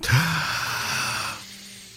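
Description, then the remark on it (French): A single long, deep breath drawn in, a breathy rush lasting over a second before fading into near silence. “On, prend une grande respiration.”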